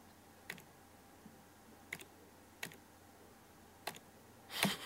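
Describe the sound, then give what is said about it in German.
Several isolated arrow-key presses on a computer keyboard, stepping frame by frame through a video, spaced irregularly about a second apart and sharp, ending with a louder, longer clack; no talking. “klicke mich hier mit den Pfeiltasten quasi von Bild zu Bild”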